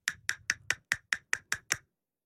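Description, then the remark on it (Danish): Castanets of about 10 cm, two pieces tied together with a piece of string, are struck together with the fingers nine times in a quick, steady rhythm, each sharp wooden clack crisp, with no talking underneath. “Altså to askebær, To askebær, som ligger ovenpå hinanden, bundet sammen af et stykke snor, og så når man sådan slår dem mod hinanden med fingrene, så siger det sådan her.”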